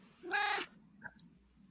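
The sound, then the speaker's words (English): A single meow from Fluffy the cat, fairly loud and drawn out for about half a second, followed by a few faint soft clicks and rustles. “Oh, Fluffy likes it too.”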